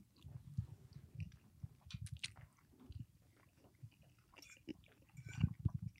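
Chewing of warm pasta with a sheep's-milk pecorino cheese sauce, eaten with a microphone in front of the eater's face: wet, crunchy bites repeating in an irregular rhythm, loud and intimate, with brief clicks and mouth noises between chews and no talking.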